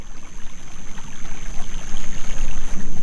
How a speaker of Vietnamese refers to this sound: Tiếng nước chảy lan xa khắp màn đêm.